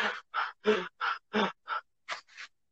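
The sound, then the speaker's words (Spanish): A voice imitates the labored, wheezing breathing of a child out of breath from playing: eight quick, raspy gasps in a steady rhythm, loud, with no talking between them. “exacto, o sea, pero o sea, mi respiración sonaba así de...”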